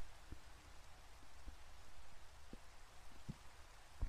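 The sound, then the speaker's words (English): Rain beats steadily on a roof, a constant soft hiss punctuated by scattered louder drops tapping the surface. The downpour sounds fairly quiet and even, with no voices. “I strained to listen for a moment, but all I heard was the wind and the rain lashing the roof overhead.”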